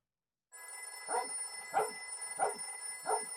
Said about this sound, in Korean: 개도 따라짖기 시작했다.